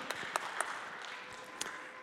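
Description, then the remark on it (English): A handful of scattered, sharp claps from an audience, about four isolated hits over a steady hiss, fading rather than building into full applause. No one speaks. “I'm sorry, I got to cut off the clapping because um, I'm running out of time.”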